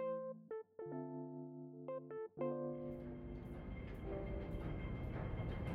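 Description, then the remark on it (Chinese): A Hong Kong subway (metro) train: a few sustained, stepped electronic tones shifting in pitch, then a broad, steady rumble and rattle of the train running that continues to the end, with no voices. “在交通上，香港的地铁跟台北捷运没有太大的差别，都一样干净。”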